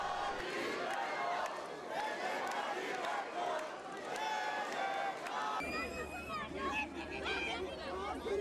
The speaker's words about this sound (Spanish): Pero escuchemos parte de los festejos en Turquía.